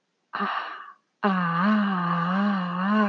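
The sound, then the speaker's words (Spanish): A short breathy sound, then a single voice sings a long, sustained open "ah" vowel with a gently wavering pitch, steady and fairly loud, with no other sounds. “Expresa, canta con el sonido y con la voz la A.”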